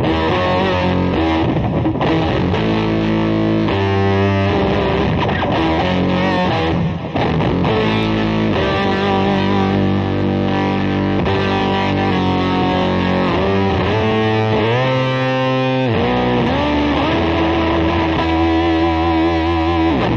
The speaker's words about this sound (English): Oh my gosh. Sounds like a synthesizer.